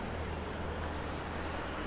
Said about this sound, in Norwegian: Eh, nå ble det litt mye biler her.